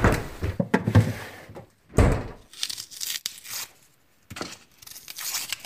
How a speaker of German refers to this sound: Als nächstes hole ich aus dem Kühlschrank eine Zwiebel.